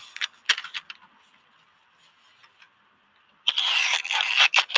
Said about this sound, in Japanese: これが、あの、いわゆるいろんな音なんですけども、まあ、途中いろいろ気になるところがあって、そのボイスレコーダーの位置を変えたりすると、こういう操作の音が入ったりするので、ちょっとその点はご勘弁いただきたいなと思います。